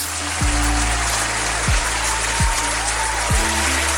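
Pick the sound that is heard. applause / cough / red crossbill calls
applause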